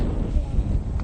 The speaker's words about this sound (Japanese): ちょっと今日風が強いんで、えー、風の音が入ってしまってるかもしれないお聞き苦しいかもしれないですけどよろしくお願いします